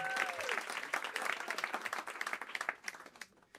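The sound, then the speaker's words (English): An audience breaks into dense, steady applause for a band of four musicians on drums, double bass and guitar, many hands clapping at once with a faint whistle or cheer early on, then thinning and tapering off toward the end. “But, but why don't we give up for Mr. Andy Ball on the drums, sur la batterie.”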